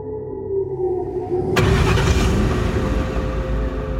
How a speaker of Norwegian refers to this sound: Og før Ingvald visste ordet av det, så han at det rulla svarte politibiler inn på plassen.